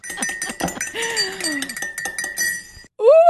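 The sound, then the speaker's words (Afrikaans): A spoon clinks rapidly and repeatedly against a coffee cup as it stirs, bright, over a faint ringing tone, ending with a short rising tonal sound. “Die geloofslepel word geroer hier op Coffee Date.”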